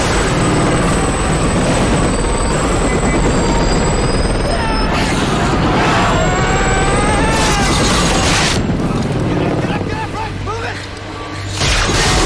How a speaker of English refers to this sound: like just like this viscerally cool moment is uh, when the helicopter pilot kills all the zombies with uh, the helicopter blades. The turbine's just like yeah, yeah.